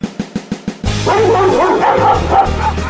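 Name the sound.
dogs barking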